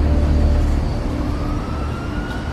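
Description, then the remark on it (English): The Batmobile's engine roars loudly and steadily as Batman races it to Gotham Plaza, its pitch climbing as it accelerates away, with a deep rumbling low end throughout and no voices. “Batman jumped into the Batmobile and raced to Gotham Plaza.”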